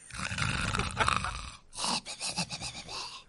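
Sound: person imitating loud snoring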